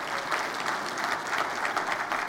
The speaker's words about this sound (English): Isn't our God a good God? Give the Lord one more big hand clap of praise. Amen.